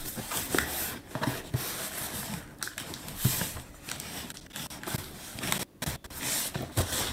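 Scissors snip and scrape through packaging close by, a busy run of crisp cuts, rustles and crinkles with brief pauses, no voices over it.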